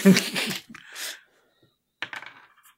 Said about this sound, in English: I have to roll dice in this game since when?